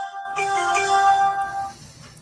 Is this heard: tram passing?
no